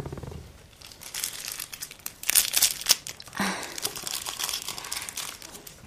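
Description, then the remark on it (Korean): Crisp crinkling and tearing of a thin instant coffee mix packet being torn open to put the coffee into a paper cup, a few sharp rips and rustles over several seconds, with a brief murmured voice near the start. “종이 컵에 커피는 제가 넣어요.”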